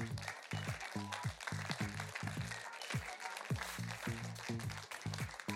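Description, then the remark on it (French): An audience applauds school classes from Sèvres, Sarcelles, Saint-Denis and Clichy in France with a steady, dense wash of clapping for several seconds, while a rhythmic low-pitched pulse repeats underneath. “On peut tous les applaudir”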